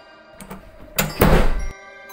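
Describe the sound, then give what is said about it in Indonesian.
A few hollow knocks on a wooden surface, two light taps followed by heavier thuds, with a louder, longer thump near the end and no talking. “Suara tok-toknya kedengaran jelas ya.”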